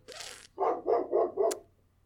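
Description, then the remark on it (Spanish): A pet dog barks four times in a quick, even series, each bark full, preceded by a short burst of hissy noise and then fading into quiet. “Mi perro.”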